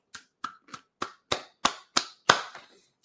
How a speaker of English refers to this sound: Round of applause.